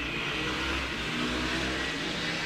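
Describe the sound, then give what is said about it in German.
Loud, steady engine roar fills the whole moment, several motors droning and revving together, a Pennsylvania motorcycle gang rumbling past without a break. “oh, jetzt kommen wir gerade die Motorradgang.”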